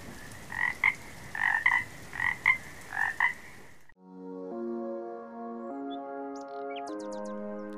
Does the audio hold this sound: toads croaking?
yes